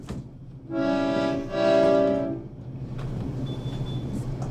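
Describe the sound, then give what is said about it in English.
An accordion, played by pressing a button and pulling the bellows, sounds two loud, swelling reedy chords back to back, imitating a train whistle, then fades into a low background rumble with no one speaking. “Okay, let me just say right off the top that I had never before held an accordion.”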